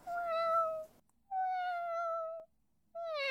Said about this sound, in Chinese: 嗯，奶奶，是什么声音？ 哦，呵呵，你听到了？ 嗯，听到了，是是猫吗？ 对对对，是只小猫仔。